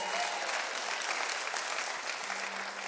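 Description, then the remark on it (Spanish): An audience claps together for the Lord in sustained, dense applause, a steady wash of many hands with no pauses, fairly loud and even throughout, with no voices standing out. “Alguien que lo crea y le dé un aplauso fuerte al Señor de fe.”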